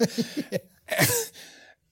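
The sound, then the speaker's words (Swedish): A sharp sneeze bursts out with a hissy, breathy spray that trails off, preceded by a few quick rhythmic vocal huffs like stifled laughter. “Ja, men, man, fattar man får fyra nys då? Kvinna, man, kvinna.”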